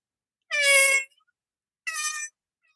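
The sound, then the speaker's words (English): A person imitates a mosquito's whine with two short, high, buzzing bursts, the first slightly longer, separated by a brief silence. The voice is fairly loud, with no other talking. “But proper mosquitoes. I went down to stay at a friend's house and we didn't sleep the whole night because as soon as you were falling asleep, all you heard was”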